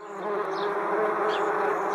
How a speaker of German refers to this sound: Warum nerven uns die Quergeister? Wespen. Sie sind dieses Jahr viel früher unterwegs als üblich,